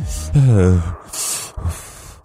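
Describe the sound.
A voice imitates a character's heavy, rasping breathing through an oxygen mask: several loud, hissing breaths in and out, with a short voiced groan between them.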